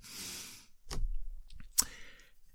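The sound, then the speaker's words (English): A brief rustling riffle of a deck of playing cards being shuffled with a special shuffle learned at a casino, followed by a couple of sharp snapping taps as the deck is squared, with no talking. “And then I'm going to do that special shuffle I learned at the casino.”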